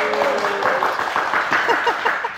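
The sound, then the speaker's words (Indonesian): An audience breaks into steady applause to welcome guest star Luna Maya, a dense wash of many hands clapping for a couple of seconds, with a few cheering voices rising through the noise toward the end. “Boleh tepuk tangan dulu.”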